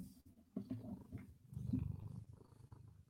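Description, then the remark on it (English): A male domestic cat, held up to the microphone, purrs, a steady low rumbling rhythm that swells and fades with each breath, continuous and fairly loud throughout. “Let's not let's not get our let, us not baby purr.”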